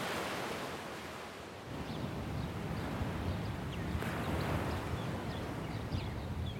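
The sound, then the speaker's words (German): Gentle Mediterranean Sea waves wash steadily onto the sandy shore of Dor Beach, south of Haifa in Israel, under a blue sky, in a continuous broad rush, with faint wind noise and occasional small splashes and no voices. “Blauer Himmel, die Wellen des Mittelmeers schwappen an den Sandstrand des Dor Beach südlich von Haifa.”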